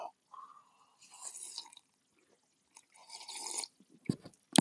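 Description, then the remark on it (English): Wet slurping and sipping of black coffee in a few short bursts, followed by a couple of soft swallows and a light clink at the end; no talking. “Tony's going to sip a little black coffee.”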